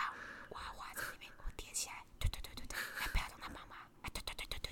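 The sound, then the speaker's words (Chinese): A voice imitates two children lowering their voices, whispering breathy hushed syllables with hissy bursts in an uneven rhythm, pretending to speak very quietly, lasting about five seconds. “然后结果后来他们两个就是就是降低音量，然后但是是这个声音，哎，我跟你说，不是 假装很小声这样。”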